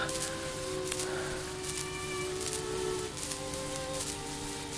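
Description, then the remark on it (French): Steady, soft rain hisses throughout, with a few sharper splashes standing out, while sustained low tones hum underneath. No one speaks. “Il pleut.”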